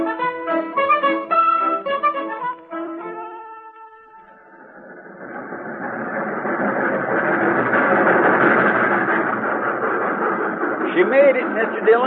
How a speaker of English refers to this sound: For the first time all week, she made it. Now, you can't expect the train to pull in on time every day